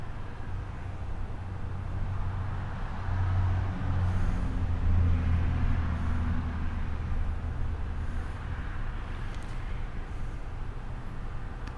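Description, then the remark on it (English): A steady roadside wash of passing cars and trucks, with deep engine rumble swelling and fading as vehicles go by. No voices. “Got a little bit car, a little bit truck, a little everything.”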